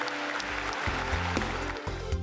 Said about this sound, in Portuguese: O povo de Deus diz: Dê um lindo aplauso ao Senhor, Deus.